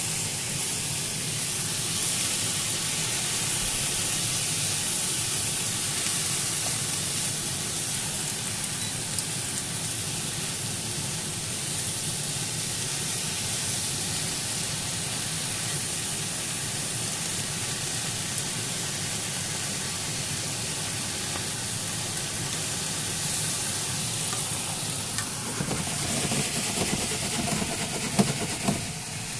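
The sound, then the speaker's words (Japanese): Steady sizzling and hissing as buna-shimeji mushrooms and cabbage are stir-fried with chicken in a frying pan full of chicken fat, a continuous crackling wash with a few sharper pops and clatters near the end, no talking. “これ何の音かっていうとお肉を焼いてた鶏の油がいっぱいあの今、あのー、流れてたフライパンの上にぶなしめじとですねキャベツを敷いて鶏肉と混ぜ焼きをしているという混ぜ炒めをしているという状況です”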